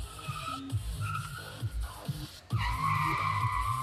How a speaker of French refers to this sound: Là-bas, deux hommes font des dérapages en voiture.